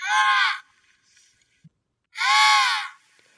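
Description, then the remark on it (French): Two loud, harsh emperor penguin alarm calls, each a rich, buzzing blast lasting about half a second, separated by a short silent pause, with no talking. The emperor penguin is about 1.1 m tall and weighs 30 kg. “Je ne sais pas vous, mais quand j'entends son cri d'alerte, ça me fait presque peur et me met moi-même en alerte.”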